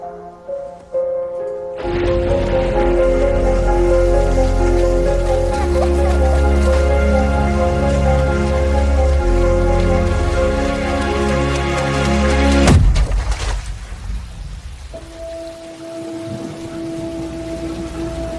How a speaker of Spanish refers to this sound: La lluvia, pero de... Meteorológica.